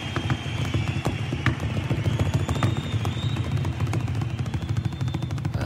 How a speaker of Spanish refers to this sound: Mira, acá tenemos una con su baterista tocando en una silla y de ahí pasan a la batería. En una silla, escuchen. Están tocando una silla, los dos. ¿Ah? ¿Qué tal suena? Una silla, mi silla, ahí. Y de ahí van pasando a la batería, obvio, ¿no?